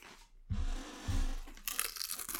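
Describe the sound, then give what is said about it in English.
Crisp crunching of a barbecue-flavored Pringles potato chip, two sharp bites followed by a burst of brittle crackling and chewing, with no talking. “Oh, I'm gonna eat this Pringle real quick.”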